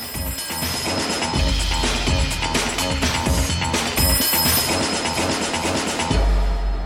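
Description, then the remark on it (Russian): A telephone bell rings persistently within a loud, dense wash of rumbling, mechanical sound, with a low thump near the end and no voices, in a film montage scene where the camera spins. “вот это вот монтажные фразы, когда камера крутится, звенит телефон, и эта сцена как бы переход из э, реального мира”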